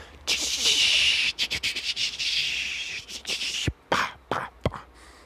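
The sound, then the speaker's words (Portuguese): A voice imitates the sizzle of an egg frying in a pan: a steady hiss broken by sputtering crackles, ending in a few sharp pops like spattering oil. “Sabe aquele barulhinho quando você vai fritar um ovo?”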